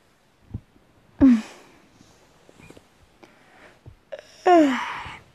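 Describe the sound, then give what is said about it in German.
A person yawns twice, breathy, drawn-out exhalations with a voiced, falling moan. The first is short, the second louder and longer, with soft clicks and rustles between them. “Ich gähnte.”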